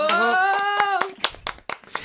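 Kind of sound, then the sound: crowd, applause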